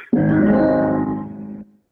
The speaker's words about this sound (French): Allez, ça marche, mais pas trop longtemps parce que le son, évidemment, malgré votre talent, n'est pas extra extraordinaire, c'est le téléphone. D'accord. Mesdames et messieurs, depuis son piano d'enfant, from Romainville, France,